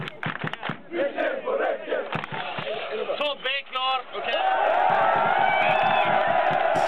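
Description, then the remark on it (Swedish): A man in an IFK Göteborg shirt shouts loudly over a busy stadium crowd at a football match, his voice rising into a few strained yells before the crowd swells into a steady, roaring cheer. “Så han där under en match, någon pissmatch som ingen vet vad den är.”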